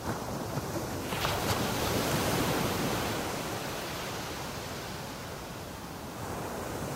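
Steady sea surf rushing continuously, with gentle swells in the wash of water and no voices. It sounds like waves breaking and rolling onto a shore.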